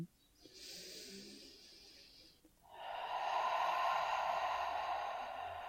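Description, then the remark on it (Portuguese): Two long, breathy exhalations through the mouth during a breathing exercise, the second louder and fuller, voiced as a whooshing rush that imitates ocean waves breaking on a beach. Clear, with no talking. “E procura colocar um som na sua respiração. A gente vai brincar de ser oceano agora.”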